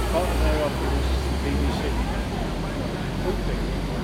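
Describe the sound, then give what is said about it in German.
A city bus rumbles steadily along a street near the Hansaring stop, its deep engine drone filling the scene, with faint murmuring voices and general traffic noise around it. “Oh, der Bus nach Bilderschriftchen. Oh ja, da hinten.”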